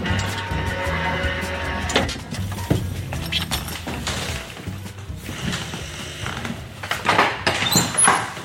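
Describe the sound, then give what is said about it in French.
A large wooden door is pushed open slowly, creaking with a long, grinding groan and scattered squeaks of old hinges, continuous, ending in a few sharper creaks. “Allez, on pousse la grande porte en bois, on monte au quatrième, on y est.”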